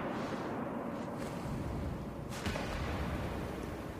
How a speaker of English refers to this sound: I thought I was thinking about how much interesting foley work went into it. Like, well, th- this is a bullet hitting something. I have no idea what just happened. And this is all foley work